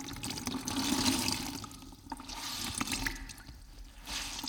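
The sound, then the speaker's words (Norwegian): Pilate washes his hands in a basin of water: a steady swishing, splashing and sloshing with soft drips, rising and falling over a few seconds with no one speaking. “Pilatus tok da et fat med vann og vasket hendene sine.”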